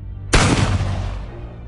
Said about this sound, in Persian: صدای شلیکی و بعد